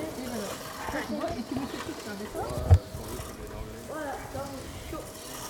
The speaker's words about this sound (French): Tu la pousses, tu la tires pas. Ça, c'est quoi C'est euh, une petite tondeuse.